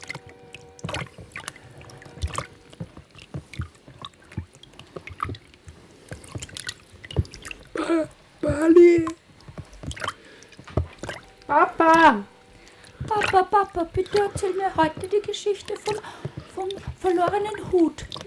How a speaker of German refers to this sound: ich will Sie nicht unterbrechen, aber da tropft es runter. Das ist so, da, da, da ist ja womöglich, womöglich sind wir unter einem Fluss.